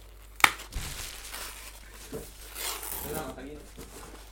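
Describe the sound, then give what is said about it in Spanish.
Package wrapping crumpled up: a sharp snap of plastic, then a steady run of crinkling and rustling as the wrapper of a package is worked open, with faint voices in the background. “Te vas a dar un paquete más complicado, tío.”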